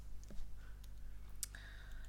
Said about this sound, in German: Oh, du klickst nebenbei, ich höre das. Ja, ich scroll runter.